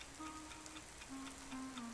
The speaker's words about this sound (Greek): Η πόλη βρέχει.